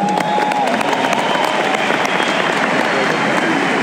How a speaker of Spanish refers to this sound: Dense un fuerte aplauso por eso, muchachos.